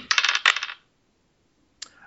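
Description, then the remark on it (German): Dice clatter briskly across a hard surface in a quick run of rattling bounces, go quiet, then give one last short knock, with no talking. It is a second roll, made to pick an article. “Also, zweiter Wurf. Wir würfeln um den Artikel.”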